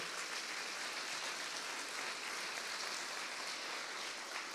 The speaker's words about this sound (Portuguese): Amém. Você pode aplaudir ao Senhor.